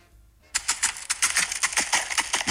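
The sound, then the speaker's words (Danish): Horse hooves clop in a quick, steady rhythm of sharp, bright knocks on a hard surface, fairly loud, starting after a brief quiet moment. “Det er en hest. Den lyder, som om den havde sko på, det har jeg set.”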